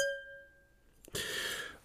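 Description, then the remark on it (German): A glass of red wine is clinked once as a person toasts alone, its clear bright ring hanging and slowly fading, followed by a small tap and a soft, hissy rustle. “Ich kann vielleicht warte mit mir selber anstoßen.”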